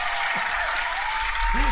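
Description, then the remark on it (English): A steady wash of applause fills the whole stretch, dense and even, with a brief voiced cheer rising near the end. “Incredible win, and uh, it probably deserves a round of applause.”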